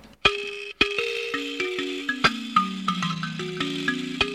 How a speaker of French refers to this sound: Euh, une sansa euh, du Zahir, c'est-à-dire une caisse de résonance en, bois, et puis des lames de métal appuyées sur un, un, chevalet, et puis des petites bagues qui font vibrer, qui ajoutent au timbre initial de la lame. Voilà ce que ça donne.